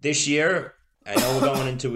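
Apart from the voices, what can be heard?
a cough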